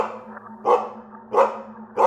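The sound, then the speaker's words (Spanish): Pete, a dog, barks loudly three times at night at a steady pace, each bark sharp, with a faint continuous low hum in the background between them. “un fuerte ladrido de Pete.”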